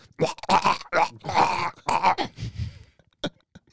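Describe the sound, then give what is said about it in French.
A voice makes gurgling, throaty mouth noises in a quick series of bursts, imitating a man chewing seeds and passing them straight into a baby parrot's beak, ending with a brief click. “quelques graines qu'il mâche consensuellement avant de les transférer à Esteban directement dans le bec”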